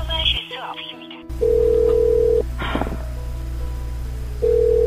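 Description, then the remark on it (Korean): A steady electronic voicemail beep tone on a telephone sounds for about a second, then returns near the end over a constant line hiss, with a brief muffled voice-like burst between the tones. “연결이 되어 음성 사서되며 B 소리 후 부과됩니다.”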